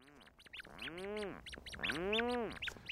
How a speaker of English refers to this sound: Rhinoceros auklets are relatives of puffins, medium sized, dark gray duck like birds that spend their days at sea and then return at night with fish for their single chick hiding deep in a burrow.